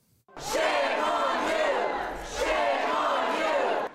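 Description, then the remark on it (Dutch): A large crowd of hundreds of parents at a school board meeting in an auditorium in Virginia roars and shouts angrily in two sustained loud surges, voices overlapping into a dense, chaotic din that briefly dips before swelling again. “with hundreds of parents flooding an auditorium to accuse the school system of teaching their kids that racism in America is structural and systemic, something the school board denies is part of the curriculum.”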